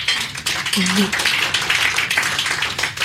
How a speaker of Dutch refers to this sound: Nou ja, laten we daar gelijk mee beginnen. Mag ik een applaus voor